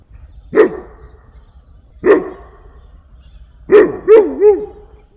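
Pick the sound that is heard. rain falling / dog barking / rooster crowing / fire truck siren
dog barking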